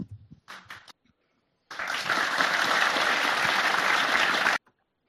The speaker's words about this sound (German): Man darf nicht vergessen, den äh, Applaus auch zu zeigen, das ist ja sonst nicht fair.